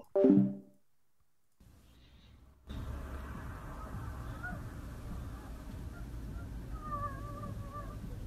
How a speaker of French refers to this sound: Wesh, mais c'est un chaton là. Ah oui, non, mais c'est. C'est un chaton, là. Ah ouais, non, mais c'est un chaton, euh, ta voisine. Les bruits, ils sont, ils sont bizarres. T'as vu, c'est une dinguerie.